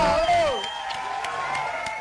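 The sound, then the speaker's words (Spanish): A crowd cheers, with a rising whoop at the start followed by a few scattered handclaps over a steady background murmur. “están todos distanciados, pero te aplauden.”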